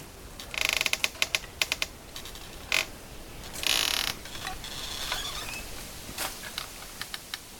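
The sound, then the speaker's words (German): Bamboo stalks creak and knock in the wind in the jungle on Carriacou, an irregular run of dry clicks, ratcheting squeaks and a few longer groaning creaks, moderately loud with no voices. “Ah, Bambus, der sich im Wind bewegt und knarzt.”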